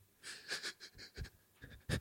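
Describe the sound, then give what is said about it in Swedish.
A person imitates rapid panting breathing, with quick, breathy huffs repeating in a steady rhythm, the last few slightly harder and louder. “det var den här liksom flämtande mm. mm. Liksom, mm. andningen.”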